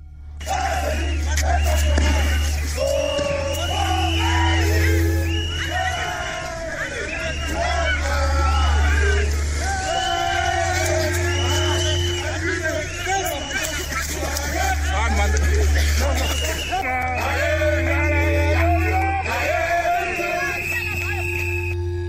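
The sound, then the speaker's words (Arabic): A street protest crowd in N'Djamena, Chad, on 6 February 2021, opposing Idriss Déby's candidacy for a sixth presidential term, shouts and chants in a loud, dense mass of voices with rising and falling calls, while a deep low pulse returns every few seconds throughout. “كانت هذه أصوات مظاهرة شهدتها نجامينا عاصمة تشاد قبل أيام فقط في السادس من فبراير 2021 رفضا لإعلان ترشح إدريس ديبي لولاية رئاسية سادسة.”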